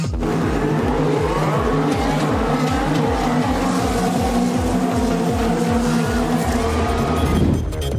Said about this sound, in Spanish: Los motores rugen en el circuito de las Américas.